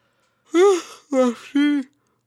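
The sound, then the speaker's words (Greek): A voiced yawn that stretches out in three drawn-out, groaning pulses, rising and falling in pitch before trailing off into quiet. “Ε, με αυτή την ξυνήλα, sorry, χασμουρήθηκα να κάνω.”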